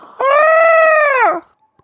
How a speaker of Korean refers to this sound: 자, 여러분께 내드렸던 예, 정답 까마귀였습니다. 까마귀. 까마귀를 아. 알고 들어보세요.